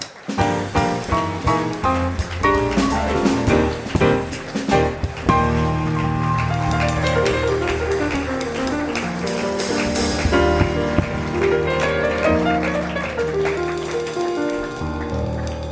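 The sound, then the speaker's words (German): Loud, sustained applause from a studio audience welcoming guest Sepp Blatter roars steadily for about fifteen seconds, mixed with music playing over it. Nobody speaks. “Und mein erster Gast, den ich jetzt begrüße, mit einem tobenden Applaus, ist der Sepp Blatter.”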